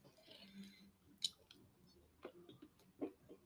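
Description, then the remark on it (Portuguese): Wet chewing of a chicken burger, with soft squishy mouth noises and a few sharper clicks and crunches at irregular moments, heard alone without talk. “Pronto, peço desculpa, estava a engolir o meu hambúrguer de frango.”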